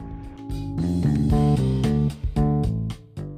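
A piece of instrumental music plays on its own, with full sustained chords shifting every half second or so over a steady percussive beat, fairly loud and with no voices.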